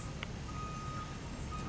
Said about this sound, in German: Ähm, sag mal, wird der Müll gerade bei euch abgeholt? Ja, das klingt so. Klingt so, als wenn der Müll abgeholt wird.